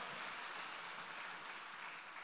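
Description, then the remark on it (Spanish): A crowd claps steadily, applauding the Lord, a dense, even wash of many hands applauding without pause for the whole stretch, with no voices standing out above it. “Déselo fuerte al Señor ese aplauso, por favor.”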